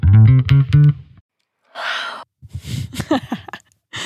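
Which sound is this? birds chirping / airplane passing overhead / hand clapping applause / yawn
yawn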